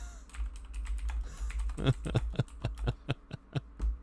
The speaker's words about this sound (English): Sorry for the typing.